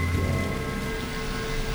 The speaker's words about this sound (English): And you can see the rain through the back kitchen windows and the overgrown back garden swaying in the breeze outside during the storm.